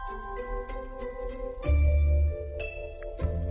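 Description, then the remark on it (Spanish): A shimmering, twinkling chime effect rings over a sustained tonal hum, with a deep swell and bright sparkling accents entering partway through. No one speaks. “Aquí suena como el brillo de las estrellas.”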